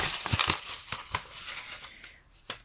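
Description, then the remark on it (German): Paper slips bearing dog-related terms for a word game rustle and crinkle as a hand rummages inside an envelope, a busy run of short dry scratches and crackles with a few sharper snaps, no voices. “Ich habe hier meinen Umschlag mit den Begriffen aus der Hundewelt. Und ich würde jetzt hier einmal kruscheln und du sagst Stopp.”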